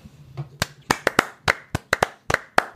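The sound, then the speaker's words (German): Sharp hand claps ring out in an uneven series, about a dozen loud smacks with irregular gaps, some landing in quick pairs, while a faint murmur hums underneath at the start. “Aber nicht, dass du das Herz Klatschen jetzt als Schneidpunkte nimmst, ne?”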